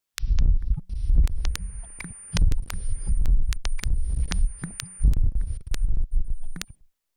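A simulated pulsating tinnitus: deep, rhythmic whooshing throbs like a heartbeat, fairly loud, with a thin, steady high-pitched whine running underneath, and no voices.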